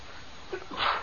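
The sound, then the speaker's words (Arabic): A single sneeze by a sheikh: a short, sharp intake followed by a bright, forceful burst, moderately loud, with faint room noise around it. “يرحمك الله شيخنا”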